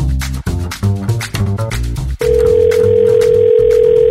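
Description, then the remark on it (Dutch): A short burst of music gives way to a steady electronic telephone tone, as when placing a call, holding loud and even with one brief break near the end. No one speaks. “En nu gaan we bellen met ons politieke orakel van vandaag.”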